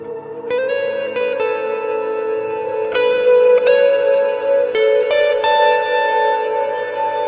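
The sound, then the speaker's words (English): Sustained electric guitar notes wash together under a held, slightly distorted tape echo from a Space Echo tape emulator, its hold function worked with an expression pedal, with new plucked notes entering every second or so over a thick, droning ambient bed; no talking. “I know that echo is distorted a little bit.”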